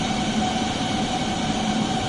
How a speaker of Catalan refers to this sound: Aquest és el so dels seus processadors que ocupen 120 metres quadrats a la capella de la Universitat Politècnica de Barcelona. Té 50.000 processadors i pot calcular 1.000 bilions d'operacions per segon.